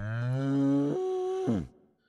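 A single long cow moo, loud, rising then holding a steady pitch before dropping off and fading out, with no other sounds around it.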